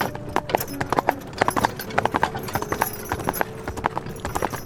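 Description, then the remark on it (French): A horse's hooves clip-clop in a steady, brisk rhythm over a hard road, fairly loud, as a travelling peddler's wagon rolls along with a faint background rumble and rattle. “en l'absence de son mari William, un colporteur vissé sur le siège de son chariot.”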